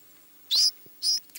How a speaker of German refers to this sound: Denn damit fehlt dieses seltsame Stimmchen unseres Vogels der Woche, des Ortolans, der Gartenammer oder auch Fettammer, wie die Franzosen sagen, weil gemästet und so.